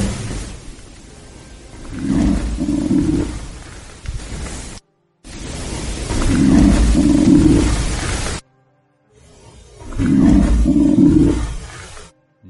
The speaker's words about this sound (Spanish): lo elevaría al punto de un gruñido, porque parece que está hablando y gruñendo a la vez. Sí, sí, sí, sí, muy, muy, muy, muy enfadado.